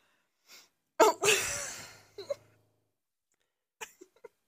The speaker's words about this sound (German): Hört man, dass ich gerade tief ne? durchatme.